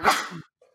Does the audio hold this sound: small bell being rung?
no